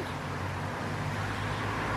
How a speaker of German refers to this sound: Also Sie würden dann aber äh, doch schon sagen, jetzt mal abgesehen vom Verkehr hier, der äh, über die Chemnader Straße rollt, ansonsten äh, fühlen Sie wohl.